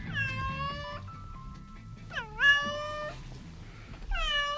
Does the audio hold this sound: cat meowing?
yes